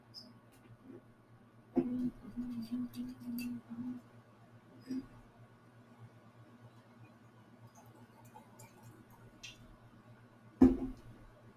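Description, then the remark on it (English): Wine glugs from a bottle into a glass in a short burst of gurgling pours, followed by a quiet hum and a sharp knock near the end. “Did you guys hear that pour? That lovely, lovely pour.”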